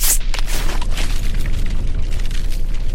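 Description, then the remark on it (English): A powerful volcanic eruption explosion, caused by built-up gas bubbles exploding, opens with a sharp blast, then gives way to a sustained, heavy low rumble and roar with crackling bursts, loud throughout with no voices. “So you get it going up to the surface, the gas is wanting to come out, you have all these bubbles forming within it, and it gets to a point where all of that explodes.”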